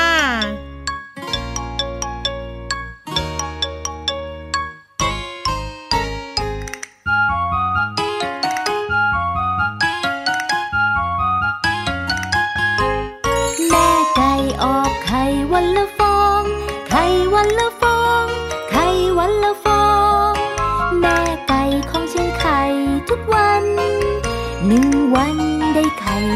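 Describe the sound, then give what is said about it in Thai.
A cheerful children's song intro with bright, jingling bell-like notes, opening with a few spaced chimes before a fuller, bouncy melody plays steadily and clearly, with no voices. “ส่วนตอนนี้ค่ะ สิ่งที่นำเสนอต่อไปนี้มีประโยชน์เพียงอย่างเดียวเลย เสียงเพลงใช่แล้ว”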